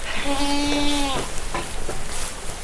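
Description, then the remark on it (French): An Alpine goat, brown with a black stripe along its back and horns, bleats once on a farm, a clear wavering cry lasting about a second, followed by fainter animal noises over steady farmyard background hiss. “mes chèvres, elles sont belles, elles sont très très belles. C'est des alpines, les plus, les plus communes en élevage euh, en France.”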